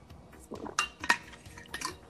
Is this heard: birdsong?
no